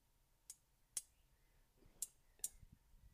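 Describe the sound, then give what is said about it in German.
Grill tongs clack together four times in two quick pairs, sharp metallic clicks close to the microphone, with quiet background between them. “dass sobald ich so eine Zange habe, dass ich immer so zweimal so klapp”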